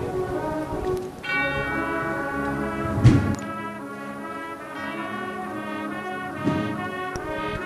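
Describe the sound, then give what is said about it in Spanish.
A large bell tolls with deep, sustained resonance while a religious brotherhood procession stands still, its rich overtones ringing out and lingering as if from a tower, with a couple of louder strikes; no voices are heard. “campana como si estuviera sonando de una torre.”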